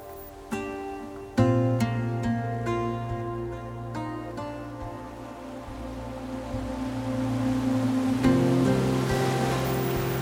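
Ocean waves break on a beach on Saga Island in a steady, full roar, with a louder surge early on and another swell building near the end. No voices are heard.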